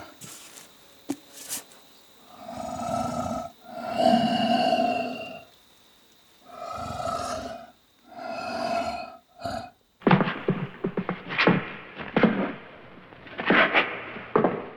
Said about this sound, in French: Et après, je peux rajouter une petite respi. Pour la respiration, j'ai mon petit tube à trous.